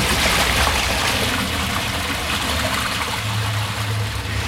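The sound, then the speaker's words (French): Fast runoff water rushes loudly and steadily down a steeply sloping street channel, a continuous churning roar with a low gurgling undertone and no voices; the slope gives a huge flow, too strong for a person to stand in. “Et là, comme la rue est fort en pente, il y a un débit euh, dingue.”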